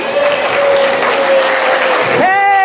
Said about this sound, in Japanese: それではそこまでにしてディスカッションの仲間に拍手を送ってください